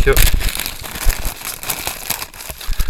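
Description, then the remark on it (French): Busy crinkling and rustling as a pouch of dice is pulled out of a bag, with quick crackly rasps and soft knocks, filling the whole moment. “Attendez, je sors ça du sac.”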